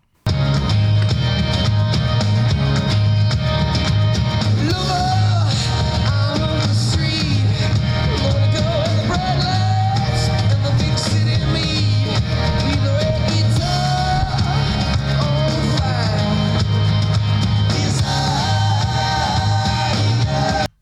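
A rock song plays steadily and loudly throughout, with a driving bass-heavy band sound and melodic vocal lines riding on top, filling the whole stretch without pauses.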